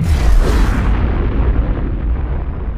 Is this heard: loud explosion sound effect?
yes